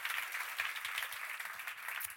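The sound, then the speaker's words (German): An audience at a live show applauds steadily, many hands clapping in a dense, continuous patter that holds at an even level for the whole stretch, with no voices on top. “Ein Applaus an euch, ja.”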